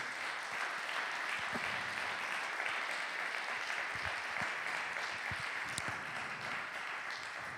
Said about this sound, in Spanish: Así que si tú lo crees, aplaude fuerte al Señor.